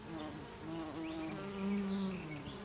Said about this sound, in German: Manchmal kommen dann so diverse Fluginsekten an und versuchen zu landen. Brrr